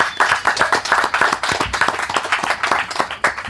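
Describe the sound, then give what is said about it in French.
A live audience at a small festival applauds steadily, many hands clapping in a dense, continuous patter with some individual sharp claps standing out, loud throughout. “En, tout cas, toute la place où tu peux trouver tes podcasts, vous allez pouvoir vous entendre applaudir.”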